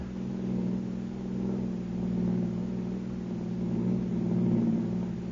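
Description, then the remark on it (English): A car engine rumbles steadily from inside the vehicle as it drives along a bumpy road, a low continuous drone with slight swells in loudness and no voices. “Turn into it. Yeah, it's a bumpy road.”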